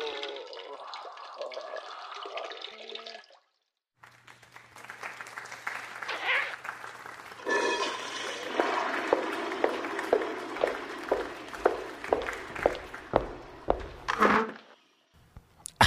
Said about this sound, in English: Well, now that the bladder's empty, I'm feeling pretty good.